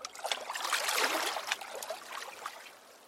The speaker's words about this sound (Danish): Det er jo bare vand. Ja, men det er faktisk noget særligt vand noget vand, som månen har en finger med i spillet i?